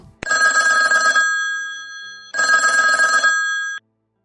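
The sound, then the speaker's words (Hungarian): A telephone rings twice on an outgoing call, each long, buzzy ring loud, separated by a short pause, with no voices. “úgyhogy most őt hívom fel telefonon.”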